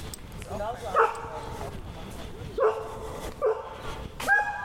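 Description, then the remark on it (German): A dog barks, four sharp, spaced-out barks over about five seconds, with a low murmur of voices and background noise underneath. “Weil er rumbellt. Aber lassen Sie ihn doch bellen.”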